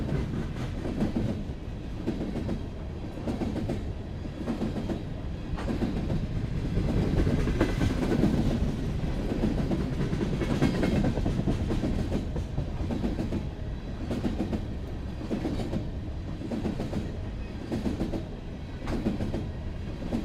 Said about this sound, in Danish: også bare høre det rytmiske igen, altså med skinnerne og hjulene, der klikker klakker, og så bare kraften i de her altså sådan mange, mange tons metal, der ligesom bevæger sig hen over andet metal, og bare skaber sådan en helt utrolig kraftfuld lyd.